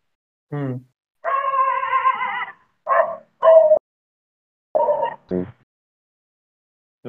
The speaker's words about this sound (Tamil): நாய் பயங்கரமா குறைச்சிட்டு இருக்கு பேக்ரவுண்ட்ல அதான் நான் மியூட் அதான் நான் மியூட் பண்ணிட்டேன்